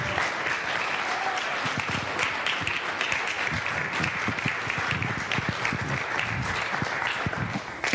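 An audience claps steadily and loudly for several seconds after a prayer, a dense, sustained wash of applause without letting up.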